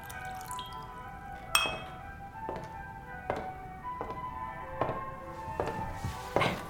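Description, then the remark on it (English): A drink is poured into a glass, heard as a quiet series of about seven bright, ringing clinks and drips spaced roughly evenly apart, with no one speaking. “May I pour you a glass as well?”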